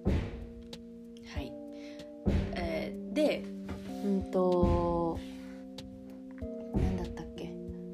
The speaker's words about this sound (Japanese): うん、あのこの音聞こえますかねちょっとあの マンションの誰かが多分鍵開かなくてドアを壊してる模様でちょっとあの 音が入ってるかもしれないんですけど。